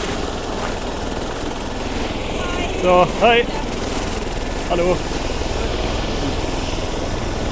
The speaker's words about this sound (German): Warten wir kurz, bis der Heli aus ist, dann geht es leichter.